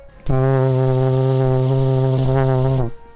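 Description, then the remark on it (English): A ship's foghorn gives one long, loud, low blast as fog rolls in, holding a steady, buzzy tone for about two and a half seconds before cutting off abruptly. No voices are heard. “we have a foreboding shot of, of the, the fog coming in with Nick's foghorn”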